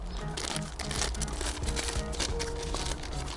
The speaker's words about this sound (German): Wir haben hier eine Tüte auf dem Stromkabelhalter liegen. Eine Papiertüte, da steht draus, drauf Kokos, Vanille und Hafer-Schoko.